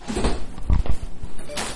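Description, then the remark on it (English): A door is pushed shut, with a couple of heavy low thuds in the middle, surrounded by soft shuffling and rustling handling noise. “Hold on, let me just shut the door.”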